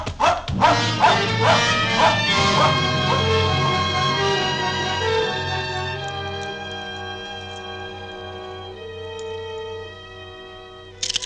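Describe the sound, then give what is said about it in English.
A dog gives a quick burst of short barks, then slides into long, drawn-out whimpering and whining that carries on steadily, moderately loud, with no one talking. “the dog sat down on its belly and placed its nose between its paws”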